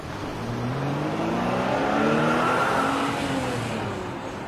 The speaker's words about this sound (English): The mice ran out of the station and onto a busy street. The cars roomed, their horns beeped. Pippin was terrified. Oh dear, so much noise!